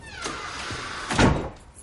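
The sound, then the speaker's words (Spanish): A house door swings with a thin, drawn-out creak, then shuts with a single solid thump about a second later, with no one talking. “Cierra la puerta.”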